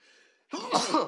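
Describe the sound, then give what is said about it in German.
A faint nasal intake, then a loud, explosive sneeze burst that swells twice in quick succession, like back-to-back sneezes, with no talking. “Zweimal oh. nacheinander niesen ist das Geilste, was bin, es gibt.”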